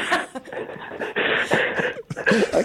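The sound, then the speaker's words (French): Heavy, rapid panting breaths like a dog's come through a tinny phone line, a steady run of breathy bursts with short gaps, fairly loud. “on t'entend juste halter comme un chien.”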